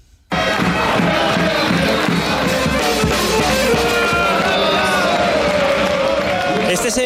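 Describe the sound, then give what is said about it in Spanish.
A packed basketball arena crowd roars and cheers a Valencia Basket victory, a loud, dense wall of voices that bursts in abruptly and stays sustained throughout, with shouting and clapping blended into the din. “Una victoria que ayer sonaba así.”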